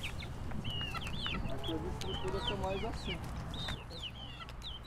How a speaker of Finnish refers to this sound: Polku nousee vehreälle kukkulalle, jossa on savesta rakennettuja koteja olkikattoineen – Katolla köpöttelee kukko.